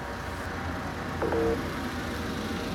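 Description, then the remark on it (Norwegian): Steady low rumble of muffled ambience inside a parked car where someone sits waiting, with a brief faint tonal chirp partway through and no voices. “Og jeg sitter i bilen og venter på at de skal komme tilbake.”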